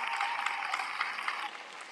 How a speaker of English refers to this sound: So they really do deserve a round of applause for that.